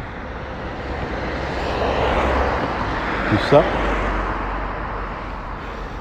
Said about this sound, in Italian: Adesso appena attraverso qua, se il notevole traffico ce lo permette